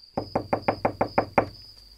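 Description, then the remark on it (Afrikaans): Seven quick, evenly spaced, solid knocks on the door of a small house, ending after about a second with a faint steady high whine lingering in the background. “Die reisiger klop aan die deur van die eerste huisie wat hy sien.”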